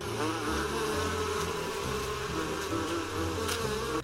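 A fly buzzes steadily for a few seconds, its droning whine wavering slightly in pitch as it hovers, with no talking.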